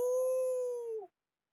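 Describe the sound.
A person's voice imitates a singer's howl-like yelp, an "Au!" that sounds like a wolf: one loud, sustained high cry held steady for about a second, then dipping and cutting off into silence.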